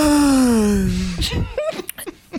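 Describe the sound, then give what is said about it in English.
A person imitates a loud, drawn-out yawn: a long vocal moan sliding slowly downward in pitch for over a second, followed by breathy exhales and a few short voiced sounds. “The most annoying sound, in my opinion, is when people make noises when they yawn, like when they go,”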